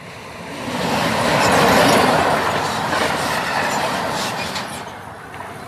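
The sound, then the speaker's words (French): A train rumbles past in a periurban area, its roar swelling to a peak and then slowly fading, with a rhythmic clatter of wheels on the rails underneath. “Et voilà mon ami, ça faisait longtemps que je t'avais pas vu mon pote.”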